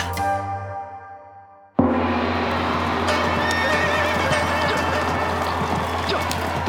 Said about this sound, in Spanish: Durante la primera carrera, el caballo de tercera clase de Tianji se enfrentó al mejor caballo del rey Chi y, como era de esperar, perdió el primer evento.